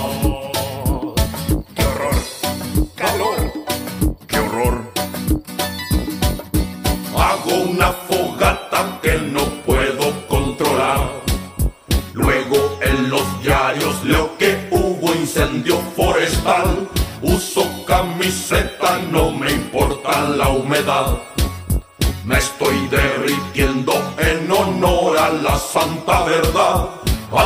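An upbeat, festive Chilean Christmas pop song by a band from a children's television series plays loud and steady, with a driving regular beat and bright jingle bells shimmering on top through the whole stretch.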